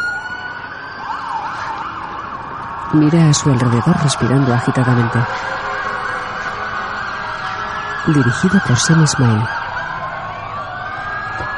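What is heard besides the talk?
police patrol car siren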